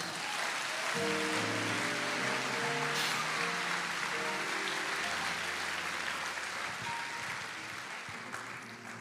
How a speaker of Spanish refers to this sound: Denle un aplauso a este Jesús.